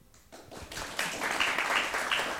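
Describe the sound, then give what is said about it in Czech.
Opening audience applause at the Pražské divadlo NOT theatre in Prague: a dense, hissing wash of many hands clapping that starts soft, swells after about a second, and then holds steady and fairly loud to the end. “To jsme si ani nemuseli domlouvat, tento úvodní potlesk.”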